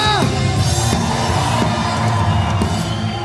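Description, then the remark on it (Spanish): A crowd at a sermon shouts and cheers together at the preacher's call in a loud, sustained roar, with scattered whoops and yells rising above the din for a few seconds. “Grita.”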